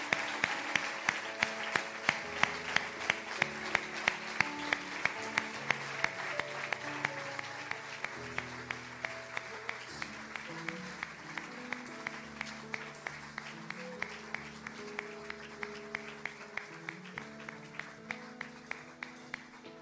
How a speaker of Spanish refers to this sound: Démosle un fuerte aplauso a Jesús.